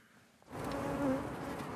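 Honeybees buzzing at an allotment garden in Bjørvika, Oslo, Norway, where they make their honey, a steady droning hum that rises suddenly after a quiet start and holds for about a second with a few wavering tones, no voices present.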